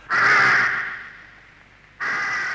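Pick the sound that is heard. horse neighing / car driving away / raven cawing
raven cawing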